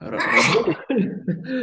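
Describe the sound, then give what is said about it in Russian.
A single loud, breathy sneeze bursts out first, followed by someone speaking a brief word and laughing softly. “Да, ничего, будь здоров.”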